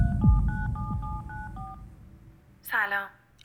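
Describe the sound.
A quick run of mobile phone keypad dial tones, about eight short beeps in steady succession, followed after a pause by a brief ringing tone as the call goes through; low background rumble and faint voices sit underneath.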